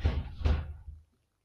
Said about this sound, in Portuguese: mas tem o meu irmão, tipo, a bater com portas, ok.